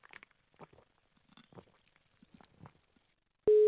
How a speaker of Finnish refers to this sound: Yhteys soittajaan katkesi näköjään mystisesti kesken puhelun.